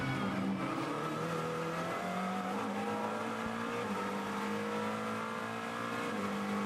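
A race car engine howls at high revs during the 2022 WeatherTech SportsCar Championship Petit Le Mans race, its pitch rising and shifting through gears as it roars past, loud with a steady harmonic drone and no voices.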